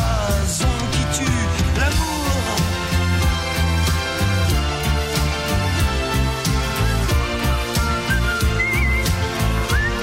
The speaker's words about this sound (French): vous étiez en train de siffler avec lui.